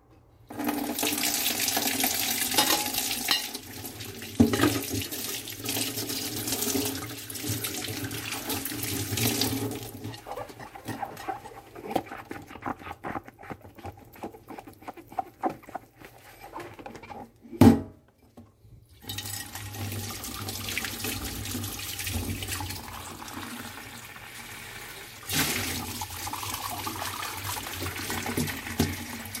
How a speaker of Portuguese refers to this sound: E são duas horas com o som da louça sendo lavada.